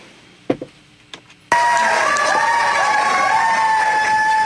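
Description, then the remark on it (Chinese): A few scattered claps and shouts, then a crowd of social workers suddenly erupts into loud, sustained screaming and cheering, with shrill high-pitched voices rising above the roar and holding steady to the end. “现场的各位社工朋友，我以为社工朋友工作是很辛苦的，为什么还有这么多的精力可以尖叫呢？”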